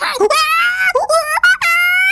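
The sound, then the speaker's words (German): A voice imitates monkeys screaming: a few loud, shrill, wavering shrieks in quick succession, sliding up and down in pitch, with brief breaks between cries. “und ein paar von Affen schreien”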